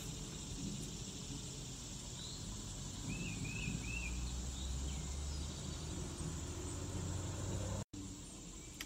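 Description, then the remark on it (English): A few faint bird chirps drift in over a steady outdoor rumble of wind and traffic on a morning in Tennessee, with no one speaking. “I want you to hear the birds. Listen.”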